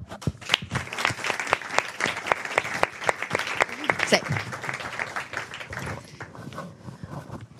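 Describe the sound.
An audience applauds steadily, a dense crackle of many hands clapping at once, with some voices mixed in before the clapping thins out toward the end.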